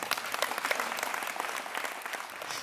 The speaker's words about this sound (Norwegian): Ti år har altså gått siden den første klarspråkprisen i staten ble delt ut. Jeg syns vi skal gi eh, tiårsjubilanten en skikkelig applaus. Kom igjen.